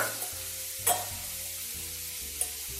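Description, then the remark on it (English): A fork fluffs steamed couscous, a soft, steady grainy rustle broken by two sharp clinks of metal against the pot. No one speaks. “I'm just going to fluff it up with a fork.”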